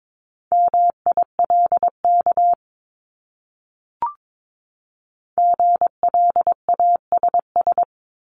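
Morse code at 22 words per minute, sending words from a list of the top 1251-1500 common words: crisp mid-pitched beeps keyed in quick short and long pulses, two bursts separated by a pause broken by a single faint click.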